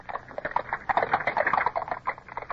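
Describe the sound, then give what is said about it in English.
Rapid, overlapping hoof clops from three horses pulling a carriage on a hard road, a busy irregular clatter of knocks at moderate loudness, as the carriage sets off again late in the day under threatening weather. “Up, we're off again with only three horses, sir.”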